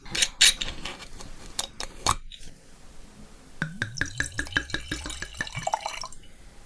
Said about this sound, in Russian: Давайте скорее нальем бокал, я немножечко расскажу про этот сорт.